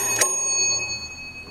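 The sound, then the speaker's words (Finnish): A doorbell at a grandmother's home rings once with a sharp, bright chime, its metallic tone lingering and slowly fading, fairly loud with no voices. “Soitetaan ovikin.”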